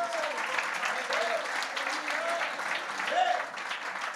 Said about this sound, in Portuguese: Crê nisso, dê glória a Ele. Aplauda a Ele em nome de Jesus.